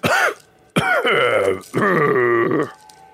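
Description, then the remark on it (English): A voice imitates a dragon coughing: three harsh, raspy, growling hacks, a short one followed by two longer rattling bursts, loud, with no other talk. “And he goes, and you've never heard a dragon cough before, but he goes”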